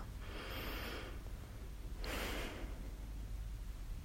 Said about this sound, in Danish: Og så tag tre dybe vejrtrækninger helt ned i maven til den der spændthed.